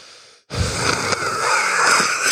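A long, raspy wheezing breath from a person's lungs, drawn in after a brief pause, with a rough whistling quality that continues steadily for nearly two seconds, no talking.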